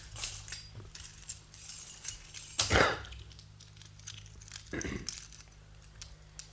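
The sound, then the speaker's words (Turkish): Chains are unlocked with a key: two short bursts of metallic jangling and clinking, a sharp rattle followed a couple of seconds later by a softer clatter, over a low steady hum. “Önce şu anahtarla zincirlerinizi çözeyim.”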